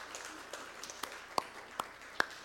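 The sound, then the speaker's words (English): Sparse, faint applause from a small audience: a handful of scattered claps, with a few sharper ones standing out near the end, with no talking. “I hope you're clapping at home too.”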